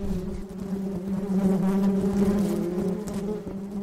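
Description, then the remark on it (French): A steady, dense drone of many bees buzzing, a continuous hum that swells slightly without pause for the whole few seconds, with no voices. “qui vont chercher le, pollen et le nectar sur les, sur les fleurs et qui ramènent ça à la ruche”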